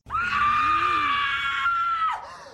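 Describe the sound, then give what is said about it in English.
Courteney Cox's scream from a film: a woman's long, piercing scream holds one high, steady pitch for about two seconds, loud, then breaks off into a short, falling cry. “and then we get Courteney Cox's scream that sounds like this.”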